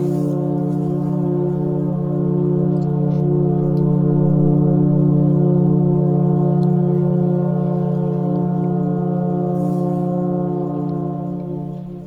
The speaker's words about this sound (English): All right, we're going to listen to a foghorn before we get to our last question.